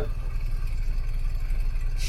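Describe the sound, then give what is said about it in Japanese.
A steady low rumble fills a car interior as the engine idles in stopped traffic on the climb of L'Alpe d'Huez, a constant deep drone with a faint airy hiss above it and no talking. “えー、引き続きまだラルプ・デュエズの坂の、はいえー、車中からという形ですけれども、はい、詰まっております”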